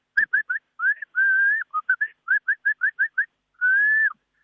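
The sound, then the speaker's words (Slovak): A person whistles an imitation of a bird call: a quick run of short, high, clear notes broken by a few longer sustained whistles, loud, with no talking. “a Jastra Belky podobne takto robí. Tak ďakujeme aj za zvukové stvárnenie toho, čo môžeme aktuálne vidieť v prírode”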